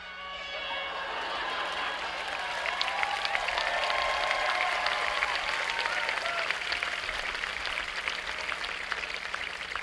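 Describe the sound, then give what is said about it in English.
Several boat air horns blare together in overlapping, sustained tones on a count of three while a crowd cheers and claps loudly beneath them, the din holding steady for the whole stretch. “I want to hear everybody's air horns.”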